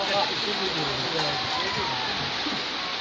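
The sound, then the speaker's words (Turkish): Steady, dense hiss of heavy rain pouring down without letup in Arnavutköy, where the downpour flooded the market place, loud, with faint muffled voices buried underneath the roar. “Arnavutköy'de ise şiddetli sağanak yağış nedeniyle pazar yeri su altında kaldı.”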